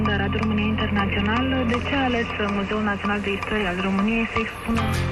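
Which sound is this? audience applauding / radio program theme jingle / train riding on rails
radio program theme jingle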